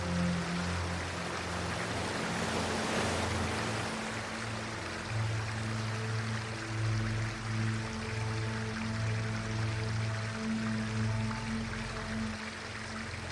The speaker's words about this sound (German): Unter unserem sicheren Boot wird der Strom nun etwas stärker. Wir passieren das Flussdelta. Der Wind weht merklich stärker. Schließe für einen Augenblick die Augen und konzentriere dich auf die Bewegungen der Wellen.